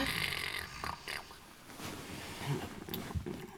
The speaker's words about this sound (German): Der … schnarcht.